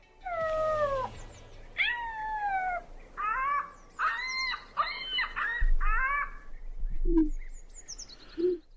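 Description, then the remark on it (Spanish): A contestant imitates an ostrich call with a series of strained, wailing, cat-like cries, about eight rising and falling yelps in a row, loud, followed by two short low grunts. “¿Te dije imita avestruz o te dije imita perro atropellado?”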